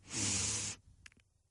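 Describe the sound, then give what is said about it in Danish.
A voice imitates people who struggle to breathe in through the nose: a loud hissing, whistling, airy inhale lasting under a second, followed by a couple of faint short snuffling clicks. “det ved du godt, det er lyden af folk, der har svært ved at trække vejret ind igennem næsen.”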